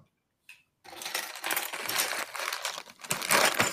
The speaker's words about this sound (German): Auch wenn ich ziemlich raschel. Das sind jetzt die Teile für den zweiten Bauschritt.